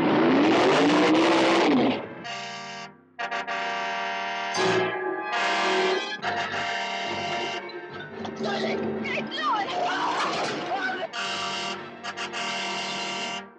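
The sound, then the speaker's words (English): A possessed car with no driver revs and races loudly in a series of roaring bursts, with brief gaps between them, dramatic, with a blaring horn-like tone mixed in. “Now it returns as the car.”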